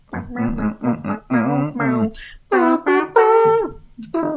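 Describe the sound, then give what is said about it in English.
A voice imitates a trumpet, buzzing out a short melodic phrase of bright, brassy notes, first a run of quick staccato blasts, then longer sustained tones that bend and slide in pitch. “That's my mouth trumpet.”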